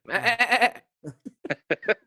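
A loud, quavering sheep bleat lasting under a second, followed by a string of short, choppy vocal bursts after a brief pause.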